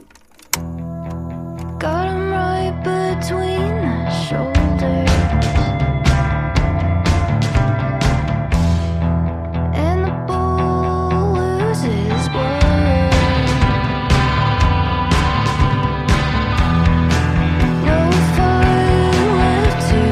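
An indie rock song plays on its own at a steady, loud level, with layered guitars and sustained chords over a driving drum beat that grows fuller a few seconds in.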